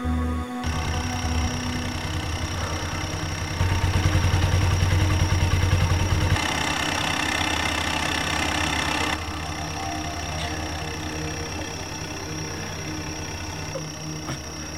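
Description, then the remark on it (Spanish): A jet ski engine idles with a steady, rumbling drone, briefly revving a little louder partway through before settling back to an even idle. No one speaks. “Ya quedó la moto del mar.”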